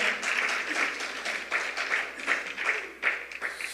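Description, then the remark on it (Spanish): An audience applauds steadily in a morning service, a dense wash of many hands clapping at once as an offering to the giver of life. Sharper bursts rise and fall through the applause, which never breaks across the few seconds. “Alguien le brinda un aplauso al dador de la vida con todo su corazón en esta mañana.”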